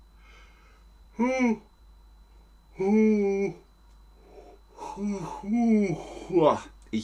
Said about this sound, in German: Oder zum Beispiel gähnen. Wenn ich gähne,